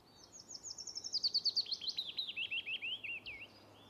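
A willow warbler sings a soft, sweet descending phrase of about a dozen clear whistled notes, starting high and gently dropping in pitch, fading at the end over a quiet background hiss.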